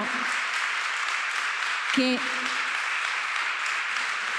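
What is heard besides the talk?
audience applause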